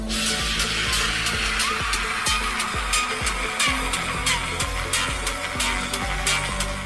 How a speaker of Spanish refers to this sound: La calidad de sonido no es realmente muy nítida, pero ten en mente que está viniendo de un puñado de haces eléctricos.